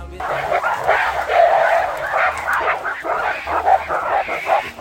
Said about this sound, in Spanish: Grabé el sonido por tener ambientes para este capítulo, pero de repente aparecieron nueve o diez gorilas delante de nosotros con los dientes fuera, muy agresivos entre ellos y a punto de una seria pelea